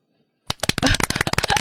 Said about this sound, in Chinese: 行行行行行，这突如其来的掌声，我们还是聊回我们的正题。